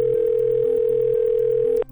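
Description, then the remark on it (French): A steady telephone dial tone hums loudly and evenly for nearly two seconds as Johnny Depp picks up his phone and dials his lawyer's number, with faint lower tones shifting underneath, then cuts off abruptly just before the end. “Très vite, il s'empare de son téléphone et compose le numéro de son avocate.”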